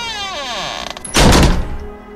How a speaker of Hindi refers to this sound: इतना कहते के साथ ही मंजू के मुंह पर जोर से कमरे का दरवाजा आकर लगा मंजू के चेहरे पर जब शांतनु के कमरे का दरवाजा बंद हुआ